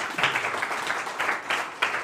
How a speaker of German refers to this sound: Machst es gut. Mal ein Applaus an unsere Technik.